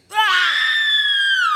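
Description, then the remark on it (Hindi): Loud, high-pitched screams of terror from a group of friends rise sharply and hold for over a second in one sustained, piercing cry, with no talking around them. “तभी सैंडी के कानों में उसके सारे दोस्तों की दिल दहला देने वाली चीखें सुनाई दी”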